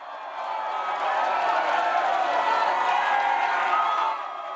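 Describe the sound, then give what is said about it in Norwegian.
A large, young concert crowd in the USA cheers and screams continuously, a dense wall of excited voices with scattered whoops, steady and loud throughout before easing slightly at the end. “Lyden fra det unge publikummet i USA”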